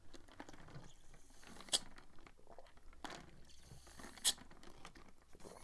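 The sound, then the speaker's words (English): Quiet sipping and swallowing from a glass, called a winning cup, with soft wet mouth noises and a few sharp clinks spaced about a second apart. No one speaks. “Sorry, I was drinking out of my winning glass.”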